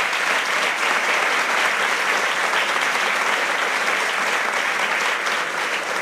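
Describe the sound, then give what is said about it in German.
A crowd applauds steadily as SPD General Secretary Kevin Kühnert and moderator Alexander Hagelüken, economics editor of the Süddeutsche, are welcomed onto the stage, a dense, even wash of many hands clapping at full loudness for the whole stretch, with no voices standing out above it. “Applaus. Applaus”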